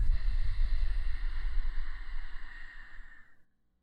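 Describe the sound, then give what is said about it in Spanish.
A long, slow exhale by a person imitating the sound of ocean waves during a breathing exercise, breathy and rushing like a wave washing in, swelling up and then trailing off into silence after a few seconds. “Mira cómo vienen y van las olas. Y con tu respiración intenta imitar el sonido.”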